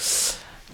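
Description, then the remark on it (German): A single short sneeze bursts out, a sharp hissy blast that fades quickly into quiet. “aber Gesundheit, Gesundheit”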